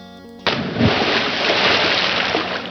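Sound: water splashing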